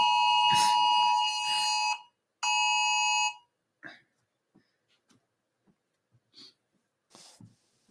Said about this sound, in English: that was that alarm for anyone realizing why there was a delay. yeah, I have just been told by the government about that fancy alarm, which is um, great.